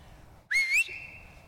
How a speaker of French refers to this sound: écoutez-le jouer au foot avec sa professeure. Qu'est-ce que tu veux Je comprends pas. Ah, tu veux que je siffle Oui. Ah, siffler. Alors tu dis siffler. Siffler.